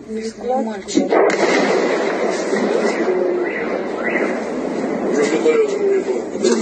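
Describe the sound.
An explosion from a drone strike near the settlement of Uyutnoye by the western outskirts of Yevpatoria, where a military unit is located, booms once about a second in, followed by a long, steady rumble of noise, with faint voices murmuring early on.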